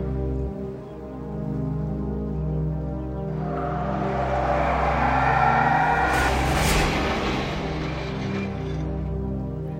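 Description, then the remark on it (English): A car engine hums steadily, then a rushing road noise swells in as the car accelerates on the open road, peaking loudly before easing slightly. No voices are heard. “He's done a fine job on the car. Let's see what it'll do on the open road.”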